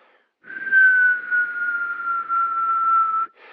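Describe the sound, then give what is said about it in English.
A person whistles one long, steady note, fairly loud, drifting slightly lower in pitch over about three seconds, imitating the thin, high whistling noise he hears when he urinates, with a brief breathy start of another whistle after. “There's a whistling sound coming from my dick hole when I pee”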